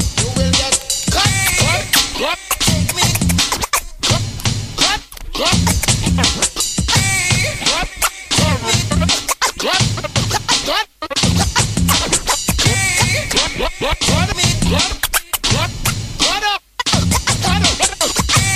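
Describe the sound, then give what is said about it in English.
Loud, dense scratching sounds run nearly nonstop, with swooping pitch sweeps and brief rhythmic cut-outs chopping the stream into stuttering bursts; no one talks. “Scratching sounds cool.”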